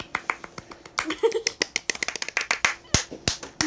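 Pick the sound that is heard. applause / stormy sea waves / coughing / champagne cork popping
applause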